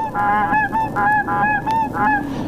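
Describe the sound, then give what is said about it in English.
A loud series of about eight imitation goose honks made by human callers at a goose-calling contest in Missouri Valley, Iowa, each contestant doing Canada, blue and snow, and white-fronted goose calls, coming in quick, uneven bursts of nasal, ringing calls with no talking. “Each contestant is doing a Canada call, doing a blue and snow goose, and then doing a white front goose which I'm sure is quite clear from this.”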